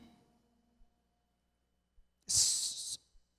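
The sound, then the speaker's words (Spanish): After a quiet moment, someone lets out one forceful, breathy puff of air, a loud hissing exhale lasting well under a second before silence returns. “Significa, fíjate, resoplido, aliento vital.”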